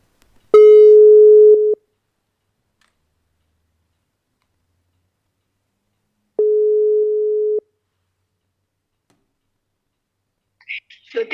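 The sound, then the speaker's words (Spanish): A telephone ringback tone sounds twice while a phone call is being placed, each a steady, clear, low hum lasting over a second, separated by several seconds of silence, before a faint voice briefly begins at the end. “Vamos a, llamarla por teléfono para que nos había enviado un saludo y bueno, que nos cuente algo de ella.”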